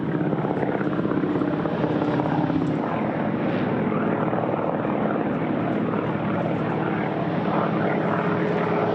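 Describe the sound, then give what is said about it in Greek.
A loud, continuous propeller drone of a Canadair firefighting aircraft flying very low over the ground to drop water on an active fire front fills the whole stretch, steady, with a dense engine roar and no voices. “Οι δύο πιλότοι 34 και 26 ετών αποφασίζουν να πετάξουν πολύ χαμηλά στο έδαφος για να πραγματοποιήσουν στοχευμένη ρήψη νερού στο ενεργό μέτωπο της φωτιάς.”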